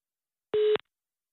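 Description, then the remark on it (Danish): A single short telephone line tone before an answering machine message, a steady electronic beep lasting about a quarter second, clear and loud against silence, ending with a faint click. “Dette er telefonsvaren tilhørende 29.”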